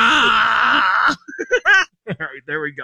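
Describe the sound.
A person lets out a loud, sustained growling yell imitating Chewbacca's roar for Star Wars night at a ballgame, lasting about a second, then breaks off into quick talking.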